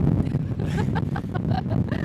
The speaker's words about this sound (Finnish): täällä tuulee.